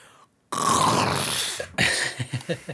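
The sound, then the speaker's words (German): A voice imitates loud chewing: a long, breathy, smacking rush of mouth noise, then a quick series of five or six wet, rhythmic chomping sounds, fairly loud, with no talking. “und dann so richtig lautes Kauen. Und schlucken.”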